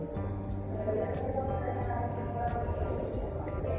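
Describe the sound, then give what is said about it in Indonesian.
A steady, droning rumble of a train at a railway station fills the whole stretch, low and continuous with a faint hum on top, while indistinct voices murmur in the background. “nah dengar kan di belakang saya ya sekarang-sekarang nggak terlalu berasa sih dulu berasa banget di stasiun”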